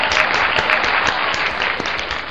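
A crowd claps steadily in continuous applause, a dense patter of many hands at even loudness throughout, with no voices standing out.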